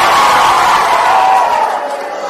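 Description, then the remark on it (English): A group of boys cheers for their team's point in a Bible quiz, one loud, sustained burst of high-pitched shouting that holds steady for a couple of seconds before tapering slightly. “Boys two. Give me a cheer.”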